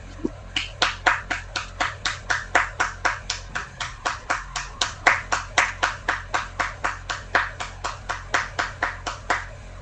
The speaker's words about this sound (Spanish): ¡Aplausos, por favor!